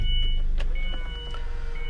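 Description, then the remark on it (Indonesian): A loud car engine idles, a steady low rumble with a droning hum and some faint whining tones over it, continuous for the whole moment with no voices. “Duh berisik banget ini mobil”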